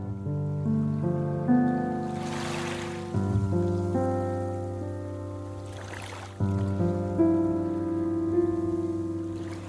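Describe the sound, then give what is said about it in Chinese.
Sea waves swell and wash through twice, soft hissing surges rising and fading over sustained, gentle piano music with held low tones, in the second version of a 2006 song; no one speaks. “这是第二个版本，一直有海浪的声音，还有像海浪一般美好的钢琴的声音，以及这个女生。”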